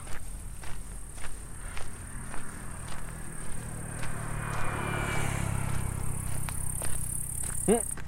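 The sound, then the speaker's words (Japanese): A steady, thin high-pitched buzz of a bush cricket or katydid trills without pause through the night air, while footsteps crunch along a path at an even walking rhythm. “この音はギスケの音かななんだっけこの葉ギスとかの音かな”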